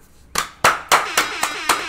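Six sharp hand claps in applause for a performer's team and staff, in a steady, even rhythm, each one a crisp slap that fades quickly. The claps are fairly loud and there is no talking.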